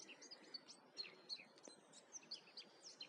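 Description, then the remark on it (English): Several birds chirp and tweet in quick, overlapping bursts over a soft steady wash of ocean sound, heard from a rock in a stone-walled field overlooking the ocean. “I can hear the the sound of the ocean in the background, the birds.”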